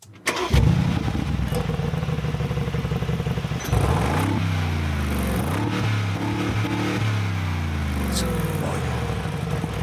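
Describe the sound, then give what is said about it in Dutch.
The V8 engine of a Mercedes-AMG G63 cranks and fires up, then settles into a deep, loud rumbling idle with blips of revving that rise and fall in pitch. “Oh, zo'n beer die ergens staat te brommen.”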